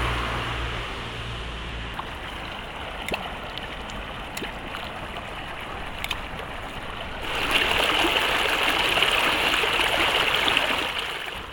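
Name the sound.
river water flowing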